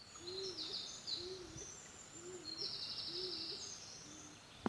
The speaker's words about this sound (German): Jetzt höre ich nochmal gerade die Hohltaube.